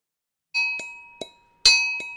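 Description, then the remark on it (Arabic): A brass mortar and pestle, called a rashad or minhaz, used for grinding grains such as coffee beans, rings out with about five bright metallic clinks at an uneven pace, each strike leaving a sustained bell-like tone hanging in the air. No voices. “هذا صوت الرشاد اللي كمان بسموه المنحاز يلي ما بيعرف الرشاد هو عبارة عن هاون ومدقة مصنوعين من النحاس عادة بيستخدموهم لطحن الحبوب ومنهم حبوب القهوة”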